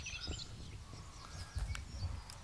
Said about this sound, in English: Anyway, got a sedge warbler got chiff chaff, you got white throat or two, you got black cap, you got garden warbler there,